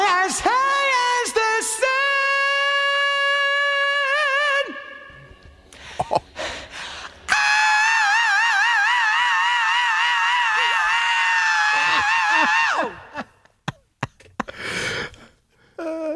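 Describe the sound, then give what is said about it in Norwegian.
A singer lets out two long, piercing screams held with a wavering vibrato, loud, broken up by heavy, audible breathing between and after them, in a studio recording. “Åh, og så skriket. Vi må ha med skriket.”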